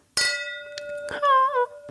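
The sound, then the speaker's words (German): Wine glasses clink together twice in a toast, each bright strike leaving a clear, sustained ring that hangs in the air. The clinks are fairly loud, with no talking. “ich krieg das Kinderglas. Find's süß. Prost. Cheers.”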